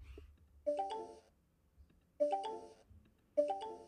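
An MSN Messenger incoming-message chime plays three times, each a bright, quick electronic tone burst that rings out and fades, with faint low background hum between repetitions and no talking.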